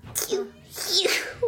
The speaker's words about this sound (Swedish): Ska du nysa eller?